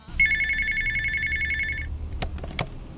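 A telephone bell rings steadily for nearly two seconds with a bright, continuous metallic trill, then stops, followed by a few short clicks and rustles over a low background rumble.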